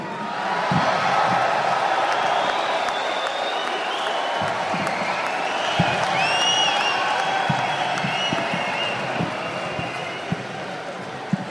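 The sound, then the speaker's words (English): A crowd applauds steadily for about twelve seconds, a dense wash of clapping mixed with cheers, whoops and a few high whistles riding over the top. “Everybody, please give a, a round of applause here”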